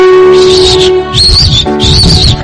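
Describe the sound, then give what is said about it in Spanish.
A person whistles three loud, high-pitched bursts, each a wavering, slightly warbling tone with short pauses between, with no talking alongside. “¡Ya puedo silbar.”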